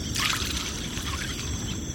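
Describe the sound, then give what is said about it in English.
Fishing bats skim the surface of Lake Maracaibo in Venezuela's mangrove forests as they trawl for small fish, making a brief splashing rush early on that fades into steady, soft watery trickling and lapping against a constant low background hum, recorded at the water's edge. “Fishing bats skim the surface of Lake Maracaibo as they trawl for small fish for their dinner.”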